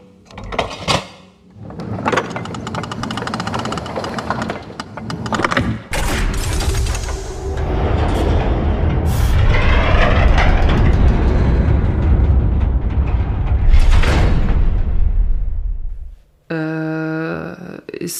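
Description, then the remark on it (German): A loud mechanical door grinds and rumbles as it rises out of the floor, a heavy sustained roar lasting around ten seconds after a few sharp clunks, then stopping abruptly. “Ist da gerade eine Tür aus dem Boden gefahren oder bin ich high?”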